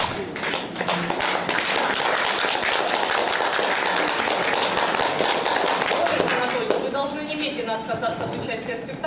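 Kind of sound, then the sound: crowd, clapping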